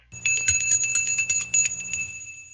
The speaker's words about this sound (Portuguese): Liga o sino aí, ó.